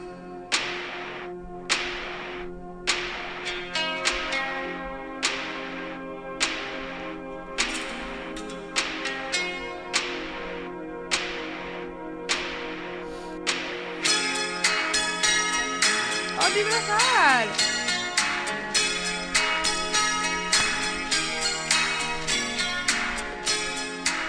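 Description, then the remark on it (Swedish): A song plays with sharp, cracking percussive hits on a steady beat over sustained melodic tones, growing fuller and busier partway through, with gliding notes; no one talks over it. “Och, för det här, det är nämligen ehm, eh, en ny favoritlåt.”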